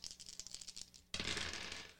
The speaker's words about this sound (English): Roll your dice.